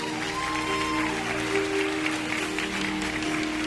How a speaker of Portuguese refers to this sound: Vamos receber esse pequeno, grande homem de Deus com um forte aplauso a Jesus.